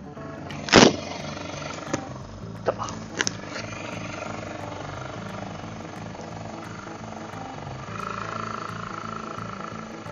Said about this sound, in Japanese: とりあえず、あ走ってくれればいいな、これで。どうだろう。よいしょ。かなりアイドリング高めにしてます。